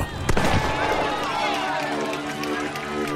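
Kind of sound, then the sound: sound effect, starting pistol shot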